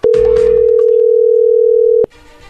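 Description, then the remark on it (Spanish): A telephone rings on the line as a call goes through: one loud, steady electronic tone holds for about two seconds, then cuts off abruptly into faint background noise. No one speaks. “Perfecto, vamos a llamarle, no haga ruido.”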